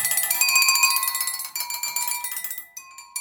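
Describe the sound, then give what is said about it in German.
Clear, bell-like tones ring from glasses filled with different amounts of water, struck in quick succession, each at a slightly different pitch, with sustained shimmering overtones and no voices. “und die Kids können dann feststellen, wie was klingt, wenn viel Wasser im Glas ist im Vergleich zu weniger.”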